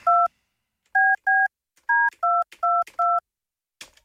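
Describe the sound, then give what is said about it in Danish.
Seven crisp, evenly pitched touch-tone beeps as a phone number is dialed to call colleagues, each short and clear, with a faint soft click at the end; no talking. “Sådan, så prøver vi at ringe.”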